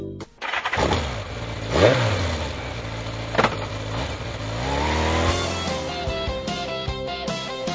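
A motorcycle engine starts up and revs several times, its pitch sweeping up and dropping back, before settling into a steady, throaty rumble. No one speaks.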